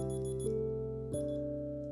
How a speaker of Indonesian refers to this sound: sorry man, alarm gue bunyi nih